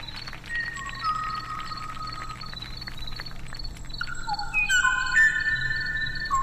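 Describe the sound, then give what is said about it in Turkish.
Recorded song of the last male Kauai ʻōʻō, a now-extinct bird: clear, pure whistled notes, some held and some sliding, repeating at a moderate pace over a steady low background hum, with no voices. “Nesli tükenen son kavai kuşunun sesini denizin yardımıyla şu anda dinliyoruz”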